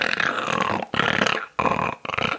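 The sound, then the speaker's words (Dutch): A voice imitates a broken bicycle bottom bracket grinding, producing four loud, rough, growling bursts in a steady rhythm, each separated by a brief pause. “Dus hij post regelmatig filmpjes en je hoort op de achtergrond een soort”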